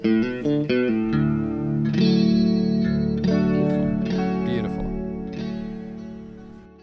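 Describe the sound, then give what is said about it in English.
Electric guitar plays a few choppy chords and then sustained, effects-laden notes with distortion, chorus and reverb, loud, with no one talking. “Um, so, let's hear a little bit of a uh, guitar.”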